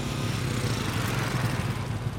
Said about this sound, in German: Motorräder und Fahrräder bewegen sich schlingernd vorwärts.